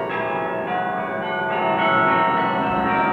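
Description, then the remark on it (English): Village bells ring together in a loud, sustained peal, their overlapping metallic tones shimmering and swelling steadily with no one speaking. “In the village, bells rang as rich and poor alike danced in the streets.”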